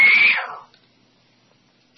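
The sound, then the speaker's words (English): A fire alarm sounds one loud, high-pitched electronic beep that rings out and fades with a slight echo, followed by silence and a brief faint click at the end. “There goes the fire alarm again. Beep, beep.”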